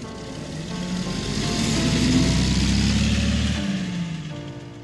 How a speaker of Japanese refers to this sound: 総勢20人の社員を乗せた観光バスが雪国を目指した山形県に入ると雪が深くなった